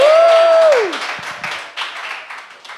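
A short burst of steady applause, many hands clapping together in a dense crackle. It opens with a sustained tone that slides downward, then the clapping carries on alone and gradually thins.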